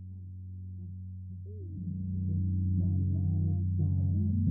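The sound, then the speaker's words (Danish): A muffled 1990s Atlanta rap track dominated by heavy, rumbling bass, its low end booming steadily while faint melodic sounds drift above and the music swells slightly louder partway through. “Og så lige pludselig skal du bare høre bas rumle igennem din soveværelsesvindue.”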